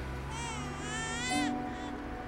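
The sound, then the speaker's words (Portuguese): A baby boy, one year and one month old, cries at home in a single drawn-out wail that rises and then breaks off. The cry is moderately loud, with a low steady hum underneath and no speech. “Ele tem quantos anos? O quê? O bebê.”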